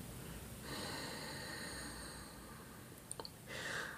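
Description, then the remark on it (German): A long, soft, breathy exhalation from people breathing out together in unison to synchronize their breath, lasting about two seconds, then a few faint clicks and the airy start of another breath. Quiet, with no talking. “Wir atmen gemeinsam aus, um unseren Atem zu synchronisieren.”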